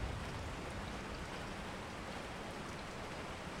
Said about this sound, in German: Über dir ziehen dunkle Wolken am Himmel entlang, deren Regen in sanften Schauern auf die Erde fällt.